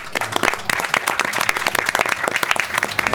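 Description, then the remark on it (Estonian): An audience applauds at the end of a moderated event, many hands clapping in a dense, sustained burst, loud, with no talking over it. “aitäh kõigile tulemast. aplaus meile.”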